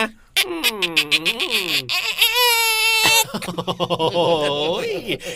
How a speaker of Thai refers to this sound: ประตูเนี่ยเขาไม่ยอมหยอดน้ำมันมันรีฟืด อ่ะเข้ามาเรียบร้อยเอาปิดประตูให้เรียบร้อยนะ